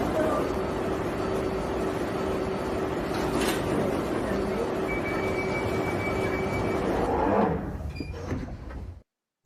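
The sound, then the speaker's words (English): An underground train rumbles loudly at a station platform, a steady electric whine running beneath the noise, then doors slide and clunk near the end before the sound cuts off abruptly. “Mind the gap between the train and the platform. Please stand clear of the discussion doors.”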